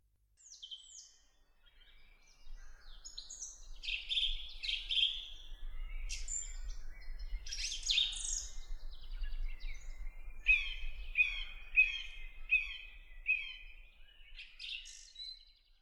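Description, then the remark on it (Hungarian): Birds chirp and sing with quick high tweets and warbling phrases, ending in a steady run of repeated notes over a faint low rumble. “A nap sütött, és csicseregtek a madarak.”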